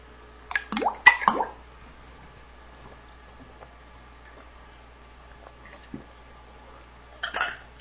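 A shot glass drops into a glass of eggnog with a quick clinking splash, a cluster of sharp glassy knocks, then quiet and one more brief clatter near the end.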